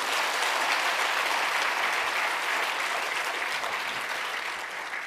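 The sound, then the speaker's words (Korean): A crowd at a church revival meeting applauds steadily for about five seconds, a dense, even wash of many hands clapping at once that stays loud throughout and eases only slightly at the end, with no voices. “네, 우리 박수 한번 하게 되기를 바랍니다.”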